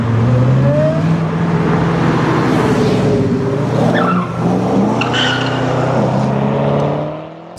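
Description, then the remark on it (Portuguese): A car engine roars loudly and steadily with tires squealing and skidding, the sound staying intense throughout before easing off at the very end. No one speaks. “O ser supremo está se aproximando em é um carro.”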